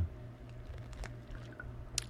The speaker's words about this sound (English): So, okay. Let me get a little drink of water here.